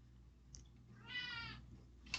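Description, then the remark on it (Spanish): A cat lets out a single drawn-out meow, fairly quiet, with no talking, just a low background hum and a couple of faint clicks around it. “Joder, ¡Au! ¡Tus garras! Gatite.”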